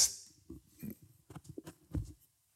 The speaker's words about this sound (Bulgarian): Харесва ми как оставяш микрофона на земята. Това 100% влиза в записа.